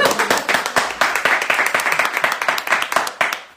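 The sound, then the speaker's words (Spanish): Applause from a small group, a dense run of sharp, overlapping hand claps keeping a brisk, fairly steady rhythm at a moderate, even loudness, with no voices over it. “Bueno, aplauso.”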